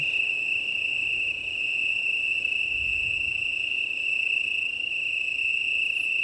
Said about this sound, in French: J'ai rarement assisté à un tel chorus. Je suis littéralement entouré de grillons d'Italie.